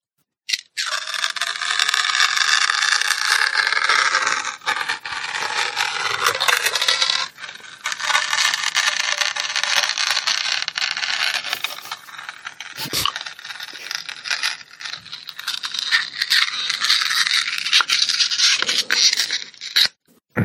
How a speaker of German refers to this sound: So, das, war das Genüssliche, ne? Ich krieg direkt wieder Bock drauf. Schlimm. Das, das, das war die Datei Holzdildo, auf Holzdildo setzen. MP3.